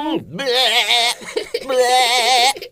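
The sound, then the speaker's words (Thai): A person imitates a sheep with two loud, quavering bleats, each about a second long with a wavering tremolo, separated by a short pause. “น้องๆรู้จักแกะกันหรือเปล่าเจ้าแกะเ้วยนะ มันทำสียังไงอะ”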